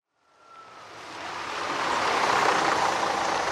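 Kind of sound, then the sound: vehicle, school bus arriving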